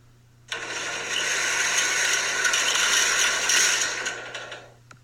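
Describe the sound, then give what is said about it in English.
A half-open metal garage bay door is pulled shut, a sustained rattling, clattering roll lasting about four seconds with no one speaking, ending in a softer settle. “As the troopers are further up the street, you decide the garage is safer and duck under the half open bay door and close it behind you.”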